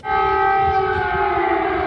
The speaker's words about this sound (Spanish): Las sirenas y el estruendo de los proyectiles interrumpen el silencio ominoso de un país en guerra.